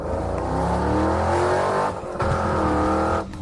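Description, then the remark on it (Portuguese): A car engine revs hard and accelerates at full throttle, its pitch climbing through two loud, sustained bursts with a brief dip between gear shifts, roaring with no voices. “Começamos as ideias de hoje metendo o prego a fundo.”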